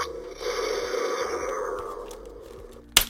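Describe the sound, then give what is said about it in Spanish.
A toy rifle's electronic sound effect plays as its magazine is removed: a buzzy, mechanical whirring that slowly winds down in pitch, ending with a sharp click. Moderately loud, with no talking. “se escucha cuando quitas el cargador.”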